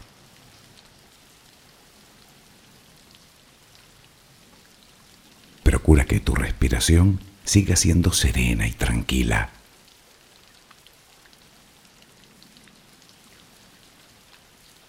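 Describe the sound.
Steady rain falls throughout as a soft, even hiss, a rain background for a sleep relaxation exercise, with a calm voice speaking briefly over it partway through before the rainfall continues alone.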